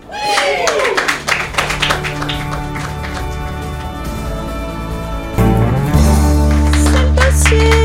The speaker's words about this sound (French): En fait, on n'applaudit pas la dernière phrase, hein, on applaudit à l'ensemble. Quand il dit le règlement est disponible sur buzzradio.energie.nc.